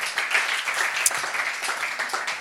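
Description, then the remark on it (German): An audience applauds steadily, dense overlapping claps forming a continuous crackling wash at even loudness throughout, with one sharper clap standing out briefly. “Danke, geben wir ihm doch nochmal einen Applaus.”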